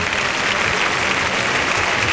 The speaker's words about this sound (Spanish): La ovación es para Manzanares, que es el triunfador del festejo.